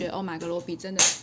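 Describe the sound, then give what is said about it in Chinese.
A person talks, then a single sharp, bright crack rings out as the speaker's pet cat at home knocks an object over, a brief clattering smack that fades quickly. “对不起，我家的猫咪在甩东西”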